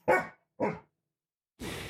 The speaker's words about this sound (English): Anyway, so if you have any, please Send them in, and Sadie will bark once for yes and twice for no. Are we being lied to by the government? Sadie, this one's for you, darling. Bark once for yes, twice for no. I guess Sadie is still undecided.